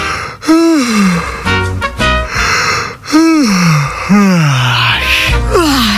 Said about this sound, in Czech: Můžeme si zívnout všichni společně. Eh, já tady rád, eh, a ne toho abys pochopila, eh, velmi rád tady zívám do éteru a vím, že všichni v republice prostě zívnou taky, když zívnu, to se prostě děje, to je mhm. dominový efekt.